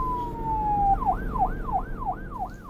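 A loud police car siren holds a steady, slowly falling tone, then breaks into a quick rising-and-falling wail repeated about five times over a low engine rumble, as a black-and-white police car drives from police headquarters into a concrete exit tunnel.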